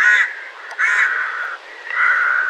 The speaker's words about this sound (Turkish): Ama bu karga deyip geçtiğimiz tür İstanbul'da bir leş kargası, İzmir veya Bursa'da bir küçük karga, Erzurum'da ise bir ekin kargası olabilir.